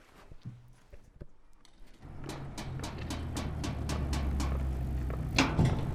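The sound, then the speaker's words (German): A steady series of sharp knocks on the door of a community radio station in the late morning, evenly spaced, over a low engine-like rumble that starts partway through, with a few faint clicks before. “Das Problem, viele Radios Comunitarias senden nur am frühen Morgen und am Abend als wir an die nächste Tür klopfen, ist es aber bereits später Vormittag.”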